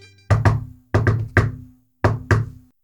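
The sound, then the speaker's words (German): Knocking on the large closed wooden door of a caravanserai in a deliberate signal pattern: two knocks, a quick cluster of three, then two more after a pause. The raps are solid and resonant, with no voices. “klopfte ein spezielles Zeichen an die große geschlossene Tür der Karawanserei”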